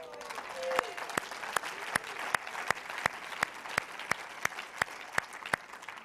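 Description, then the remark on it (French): A crowd at the Église de Portail applauds the news that 350 people are in the church's small groups, with sharp, evenly spaced claps in unison cutting through a steady bed of scattered clapping. The rhythmic clapping keeps a brisk, regular beat throughout. “Et on a la joie, attendez avant d'applaudir, on a la joie d'avoir 350 personnes dans les petits groupes de l'Église de Portail.”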